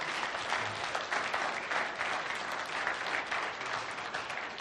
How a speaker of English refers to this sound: we we just want to highlight our amazing sound guy this morning. You guys can give our sound guy a hand, even at home as you're watching online.